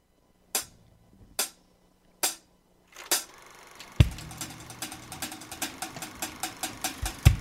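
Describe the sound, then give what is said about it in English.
A film projector: four separate mechanical clacks, then the machine starts up with a low motor hum and a fast, steady clicking rattle that continues to the end. No one speaks. “record the projector sound yourself?”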